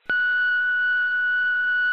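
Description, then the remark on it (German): A single steady electronic answering machine beep, signalling the caller to leave a message, starts abruptly and holds a constant pitch for nearly two seconds, clear and fairly loud with no voices. “Na, egal, dann quatsch nach dem Piepton, wa?”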